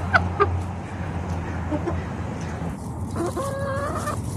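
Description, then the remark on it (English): Chickens in a yard murmur in soft, burbling clucks that trade back and forth while someone weeds nearby, with a few sharper clucks early on and a longer warbling call near the end over steady outdoor hum. “And they like to make this really lovely burbling sound back and forth.”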